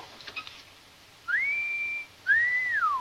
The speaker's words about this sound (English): Oh, maybe just whistle.